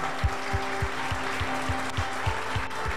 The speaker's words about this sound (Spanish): Yo que usted le estaría dando un aplauso al Rey de la Gloria.